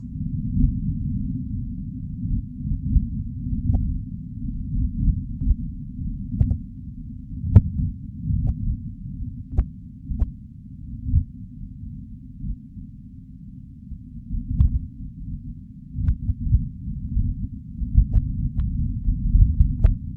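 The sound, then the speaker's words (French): Martian wind picked up by a rover microphone: a low, muffled rumble that swells and fades in gusts, with a few faint clicks scattered through and no voices. “On entend le vent, donc vous fermez les yeux, vous mettez ça sur des, des bonnes enceintes, et là, vous avez l'impression d'y être.”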